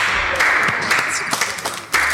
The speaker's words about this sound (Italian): Applauso, applauso.